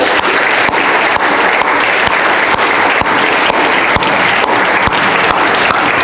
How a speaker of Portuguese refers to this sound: Quantos podem dar um aplauso a Deus por isso? Aleluia!